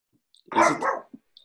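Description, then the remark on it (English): A dog lets out a single drawn-out bark, rising and dipping as it goes, then falls quiet apart from a couple of faint, short sounds afterward. “My dog this, is trying to conversation.”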